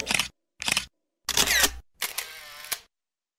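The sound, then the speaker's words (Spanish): A camera shutter clicks several times in quick succession, crisp, as a group of vacationists gathers and takes a photograph; the last burst stretches into a longer mechanical whir like a motor winding on. No voices. “Entonces se reúnen los vacacionistas y se toman una fotografía.”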